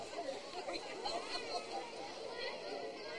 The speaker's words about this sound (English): Another huge crowd here for Little League Baseball. Columbia, Tennessee, live on the TriStar Sports Radio Network.